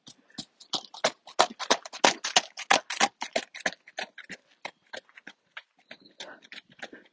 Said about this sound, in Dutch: Ik ben in het bos en er komt een paard voorbij.